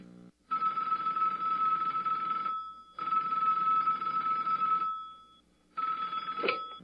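A phone call placed from a cell phone in Wichita, Kansas rings over the line: three long, buzzy rings with short pauses between them, no voices, and a brief click at the end of the third ring.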